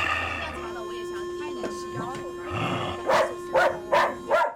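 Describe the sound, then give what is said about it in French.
A dog barks at people four times in quick, evenly spaced succession, loud. Before the barks, a steady humming tone runs beneath faint background noise. “Elle leur aboie dessus.”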